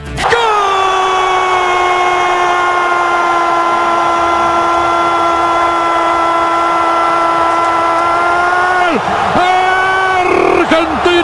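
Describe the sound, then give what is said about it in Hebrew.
Deafening noise from football fans at a football match involving Argentina, just before kickoff, a loud, continuous droning roar with a steady buzzing tone that holds for about nine seconds before wavering and dipping near the end. “הרעש של האוהדים מחריש אוזניים”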